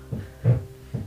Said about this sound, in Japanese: 目の前の壁工事してるわごめんなさい